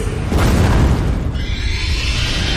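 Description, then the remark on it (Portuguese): A loud, rumbling crash of two giant waves slamming against a boat in heavy rain, a booming surge early on giving way to a continuous churning roar of water with a hissing spray on top. “Mas antes que possa comunicar que os Cavaleiros de Ouro devem se segurar, duas ondas gigantescas colidem contra o barco, espalhando os destroços por todos os lados.”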